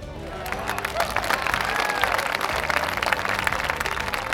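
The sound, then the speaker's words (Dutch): The townspeople of Hamelin burst into sustained applause for the musician, a dense, steady wash of many hands clapping at an even loudness throughout, with a faint murmur of voices mixed in. “Inwoners van Hamelen, mag ik een heel groot applaus voor de muzikant.”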